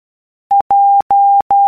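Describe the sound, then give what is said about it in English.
Morse code beeps for the letter J (Juliet): a single steady mid-pitched tone keyed as one short beep followed by three long dashes, loud and clean with no voices. “Morse code.”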